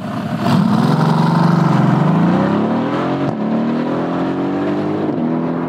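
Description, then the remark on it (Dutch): A red-roofed roadster's engine revs loudly and steadily, its pitch sweeping down and then climbing as it accelerates, continuous for several seconds with no voices. “Hoor je het motorgeluid ook beter?”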